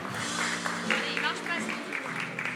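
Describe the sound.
A crowd applauds steadily with dense, continuous clapping while a voice talks over it. The applause stays at an even level throughout.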